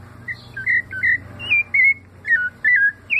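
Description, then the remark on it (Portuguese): A rufous-bellied thrush (sabiá laranjeira), the symbol bird of Brazil, sings a run of clear, fluty whistled notes, about eight short phrases in an even rhythm, moderately loud over a faint low hum. “E que a ave símbolo do Brasil é o sabiá laranjeira?”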